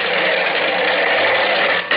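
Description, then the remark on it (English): A steam freight train starting off from the KC freight yards, heard as a steady, loud mechanical hiss and rumble that holds even throughout, with a brief dip just before the end. No voices. “The old boiler up front's got the steam up. And we're off.”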